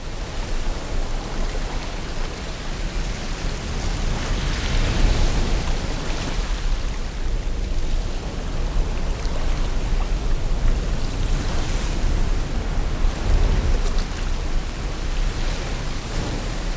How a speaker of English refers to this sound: One of the best masking noises on my noise is the Irish coast that we can hear now in the background. And each noise and each sound on my noise is actually made of a layering of 10 different layers.